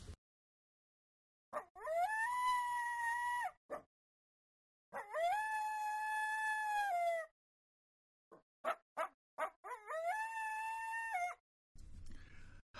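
A coyote howls in long, sustained, wavering calls, three drawn-out howls with short yips and barks between them, clear with no talking.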